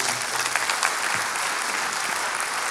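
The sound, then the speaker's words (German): An audience claps steadily as a speaker is welcomed on stage, a dense, even wash of many hands sustained at a constant loud level for a few seconds with no voices standing out. “Lasst uns Applaus geben.”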